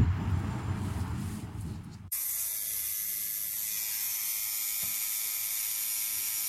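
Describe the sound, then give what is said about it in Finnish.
A low rumbling murmur gives way abruptly to the steady, high-pitched electric buzz of a tattoo machine in use while someone gets a tattoo, with a fine mechanical rattle, running on without pause, with one brief click partway through. “Arvatkaa mitä teen. No tatuointia tietenkin.”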